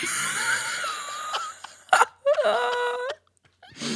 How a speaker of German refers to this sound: Einfach nur ungünstig, dass er da husten musste.